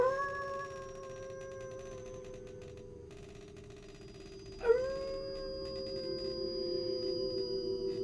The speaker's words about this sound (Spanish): Aún no he visto criados por ninguna parte, ni he oído otros ruidos en los alrededores del castillo que el aullido de los lobos.